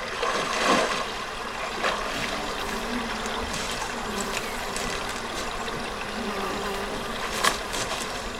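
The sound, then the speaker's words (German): A layered foley scene of people at a lake: steady trickling water with insects buzzing, and a few soft, scattered barefoot footsteps crunching through dry grass, with no one speaking. “Man hört Wasser, man hört Laufen auf dem eher trockenen Gras.”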